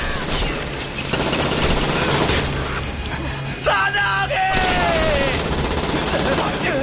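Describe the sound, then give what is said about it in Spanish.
Several guns fire together in a dense, continuous barrage of overlapping loud cracks as a group of men shoot at a man pulling ropes to topple a tower, while voices yell and shout over the shooting. “Sus hombres le disparan.”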